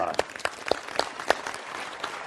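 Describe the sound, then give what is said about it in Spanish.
A short burst of clapping from a small group, sharp uneven claps with a few louder accents standing out, lasting about two seconds. “Tú lo dijiste primero. Un aplauso.”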